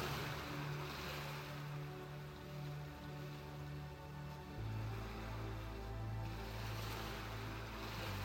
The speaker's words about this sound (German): Die heranrollenden Wellen, wie sie mit einem Rauschen am Ufer auslaufen, wirken sehr beruhigend auf dich.